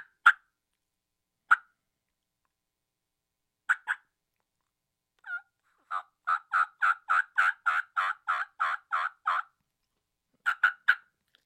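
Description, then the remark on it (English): A turkey call cuts like a hen: a few scattered, sharp clucks, then a rapid burst of about a dozen loud notes, ending with a quick trio. No one speaks. “Uh, that's a cut on the calling.”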